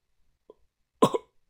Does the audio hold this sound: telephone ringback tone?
no